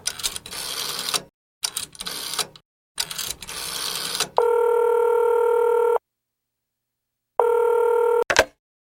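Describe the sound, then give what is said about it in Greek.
A telephone is dialed in several quick mechanical bursts, followed by a long steady electronic tone, a pause, and a shorter repeat of the tone ending with a click; no one speaks. “Ο Μαστρομέρας κινείται σαν σβούρα προς το τηλέφωνο.”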